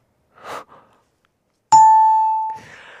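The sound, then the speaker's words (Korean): A single bright ding-dong-dang correct-answer bell chime on the radio show Gayo Gwangjang, marking an accepted entry in a two-line acrostic poem segment, strikes loudly and rings out for under a second, preceded by a soft breathy sound and followed by a brief hissing rustle. “딩동댕을 받은 분들과 추첨을 통해 뽑분 이행시 참여자분들께”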